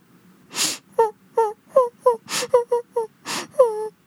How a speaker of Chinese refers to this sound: 突然，小兔兔听到了一阵哭声。